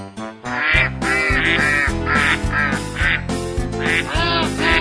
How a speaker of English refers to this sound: We'll be right back after Bob gets the ducks out of his living room.